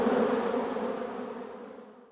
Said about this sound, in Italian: terminare la sua attività di apicoltore. Ovviamente sarebbe risarcito dall'azienda, ma quel suono, il ronzio che riempiva le sue orecchie